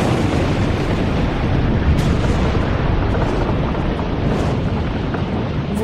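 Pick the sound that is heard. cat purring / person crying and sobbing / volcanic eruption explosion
volcanic eruption explosion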